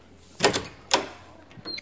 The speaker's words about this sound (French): Vous voulez dire poussons la porte de, cette chapelle Et alors, justement, je vais vous dire, parce que je connais très bien les lieux, qu'en fait, il y a derrière cette porte une autre porte.